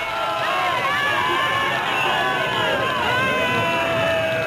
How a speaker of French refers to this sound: Et vous entendez tout le monde chanter, chanter des chansons, pousser des cris en, l'honneur, en l'honneur de la victoire.